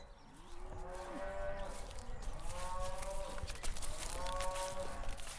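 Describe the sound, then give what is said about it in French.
Several dairy cows from a herd of 25 moo one after another on an organic farm in Lanvelec, Côtes-d'Armor, France: long low calls overlapping, with a steady background of farmyard noise and no talking. “elle est éleveuse de vaches laitières.”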